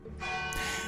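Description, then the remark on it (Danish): Bells of a Danish church ring out with rich, overlapping tones that swell and sustain, a dense metallic clang filling the space without pause, fairly loud. “Og du har nok gættet, at det, der bimler og bamler i baggrunden, men at det er lyden af kirkeklokker.”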